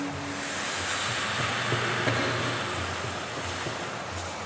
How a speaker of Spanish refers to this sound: como cuando va en una cascada y queda caer el agua de alto, suena como así cuando chocó como el agua a las piedras